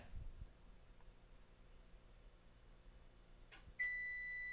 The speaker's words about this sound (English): oh, it's gonna beep. You ready for this? The oven's gonna beep. Oh, we're five degrees away.